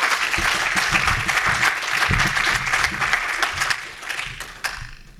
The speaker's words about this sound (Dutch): Mag een heel hartelijk applaus voor Wibo en Jan Kees van Forecast.